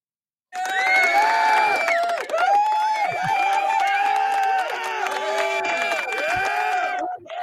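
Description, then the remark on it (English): A crowd of students cheering and clapping together, with many excited overlapping voices and a steady patter of claps, loud, lasting about seven seconds before cutting off. “Are those his students clapping?”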